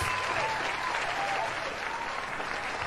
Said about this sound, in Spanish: Aplausos muchachos.